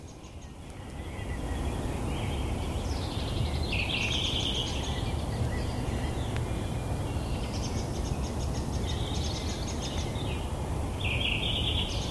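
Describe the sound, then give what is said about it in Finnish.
A male duck on a just-thawed pond in spring gives short, squeaky nasal calls to a female in a few clustered bursts, fairly distinct over a steady rushing background of water or wind, with no talking. “Nythän tämä on se varsinainen kylpyankka, joka tekee sitten sen äkkinäisen liikkeen ja huutaa naaralle, että muni vaan lisää sinne, että Okei.”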